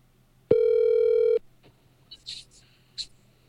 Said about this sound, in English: What do you, what would my phone say? It said your call cannot be completed as dialed.